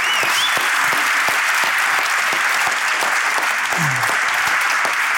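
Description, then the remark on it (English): A large audience applauds and cheers loudly and steadily throughout, a dense wash of clapping with scattered whoops rising above it, sustained with no pause. “That, um, that is an applause big enough to keep on that episode of High Performance, yeah, isn't it?”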